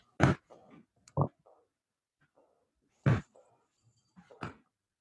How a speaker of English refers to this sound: You hear what it? Is, what is it? Um, I have a bouncy chair, and it's a bouncy chair in my office.